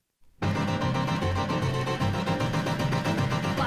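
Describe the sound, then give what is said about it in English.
After a brief silence, a full, steady band recording kicks in loudly, with bright brass-like tones over a bouncy bass line, like an old-fashioned 1950s pop song, with no voices yet. “Uh, this first one I'm going to play”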